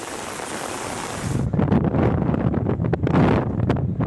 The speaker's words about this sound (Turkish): Ankara'nın Nallıhan ilçesinde rüzgar çatıları uçurdu.